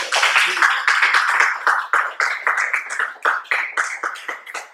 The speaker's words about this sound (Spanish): Ok, bueno, muy bien, un aplauso para ustedes.